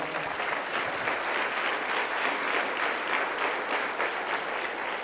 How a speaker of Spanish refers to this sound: Te invito a que te pongas de pie. Dale un aplauso al Señor.